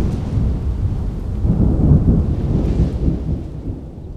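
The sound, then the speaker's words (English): A nighttime thunderstorm over a campsite, heard from inside tents, with heavy rain pouring down, wind, and deep, rolling thunder rumbling continuously, loud, with no voices. “The heavy rain, wind, thunder, and lightning were super loud inside the tents.”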